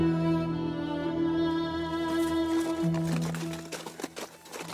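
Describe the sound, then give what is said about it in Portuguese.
Horse hooves clip-clop on a road at a steady walking rhythm, becoming clearer in the second half, beneath sustained, droning musical tones. “Vocês pegam a estrada, seguem o máximo que o cavalo aguenta até parar para descansar, fazem seus turnos de, de, vigia, né?”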